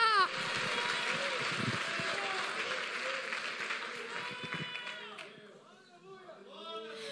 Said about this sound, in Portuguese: Não, se é para Deus, aplaude com vontade. Se é pela palavra, mistura com glória a Deus e aleluia.